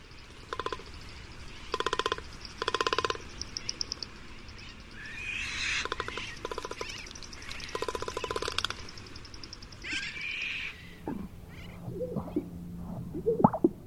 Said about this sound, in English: inflated throat sacs beaten and rattled with a long beak, magnificent frigate bird.